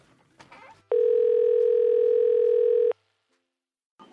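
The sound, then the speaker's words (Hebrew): A steady telephone tone sounds loudly for about two seconds as a phone call is placed, a single unbroken electronic hum, with brief bits of talk and noise before it and a short sound after. “טוב, בוא נרים טלפון.”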